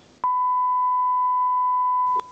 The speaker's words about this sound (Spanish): Creo que no hace falta el pitido. sí, hace falta el pitido, hace falta el pitido para todo.